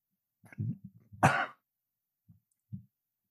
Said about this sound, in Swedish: Hostar för dramatisk effekt.